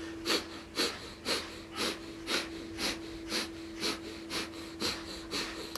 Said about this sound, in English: And again, I think most of you know this breath, but if you're new to it, it's a rhythmic breath in and out through the nose, and we pump the navel as we breathe, equal parts in, equal parts out. We do it rhythmically, and it sounds like this.